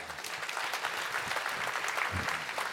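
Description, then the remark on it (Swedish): Steady applause from an audience, a dense crackle of many hands clapping at an even level for a few seconds, with no voices standing out. “Applåd till döden.”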